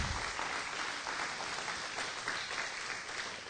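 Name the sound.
audience applause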